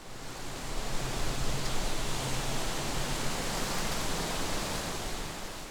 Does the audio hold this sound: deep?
no